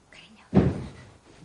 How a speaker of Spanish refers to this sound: Por la noche, Alan y su mujer se despiertan al oír unos golpes en la puerta.